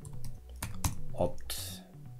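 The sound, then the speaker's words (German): A quick burst of typing on a computer keyboard to enter a project name, several crisp key clicks tapping in an uneven rhythm, with faint voice-like murmuring in the background. “So, ich klicke auf Anlegen und gebe dem Ganzen einen Namen.”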